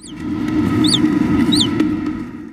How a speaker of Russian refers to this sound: Вот послушайте два разных разговора землекопов. Послушайте, есть вот такой разговор.